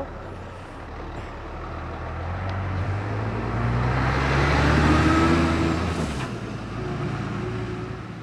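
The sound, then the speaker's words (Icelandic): A large vehicle drives in, its deep engine rumble building to a peak mid-clip with a broad rush of noise, then easing slightly as it passes; no one speaks. “það er að koma stærðar inn á bíl hérna, við ætlum að forða okkur aðeins frá.”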